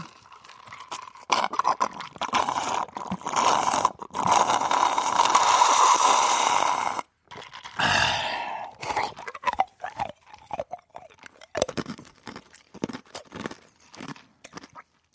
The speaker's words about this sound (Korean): 아이스 아메리카노 마지막 한 방울까지 쪽쪽 빨아먹고 남은 얼음 와그작 씹어먹는 소리 듣고 싶어요. 그건 뭐. 음, 되나 모르겠네. 오늘 이게 아이스 유자인데요.